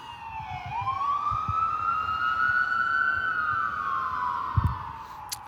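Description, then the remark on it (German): An emergency vehicle siren wails, rising and slowly sweeping in pitch, steady over a low rumble of city traffic with a few thumps near the end. “Das ist so wirklich, wir hören die Blaulichter.”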